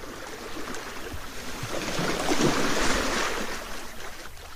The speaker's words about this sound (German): Die Wellen der leichten Brandung zeigen uns, wie es im ganzen Leben läuft. Egal, wie ruhig es auch zu sein scheint, alles bleibt trotzdem immer in Bewegung.